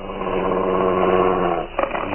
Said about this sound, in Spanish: El varón amenaza con filoso estilete, pero el enorme mastín se pone a la defensiva y gruñe amenazante.